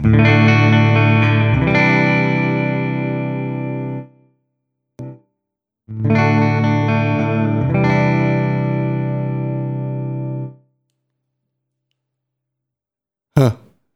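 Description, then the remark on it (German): Two long, sustained electric guitar chords ring out through a TC Electronic effects pedal from 2017, thick with harmonics and a shimmering modulation, each held for several seconds before cutting off, with a brief squeak after. “TC Electronic Pedale anno 2017”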